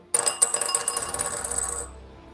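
Dice clatter across a table as they are rolled for a stealth check in a tabletop role-playing game, a quick burst of sharp clicks and rattles that gradually settle and fade out within about two seconds, with no talking. Both dice land on ones.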